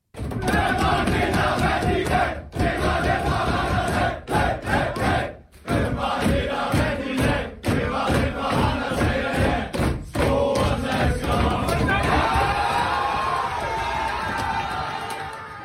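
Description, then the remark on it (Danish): A team of men loudly sings a victory song together in the locker room after winning a match, voices rough and shouted, with rhythmic thumps like stomping or clapping punctuating the chant throughout. “Vi skal lige hurtigt med en tur ned i omklædningsrummet efter kampen, fordi her blev der nemlig sunget en velfortjent sejrsang, som klubben også har lagt op på sin Instagram.”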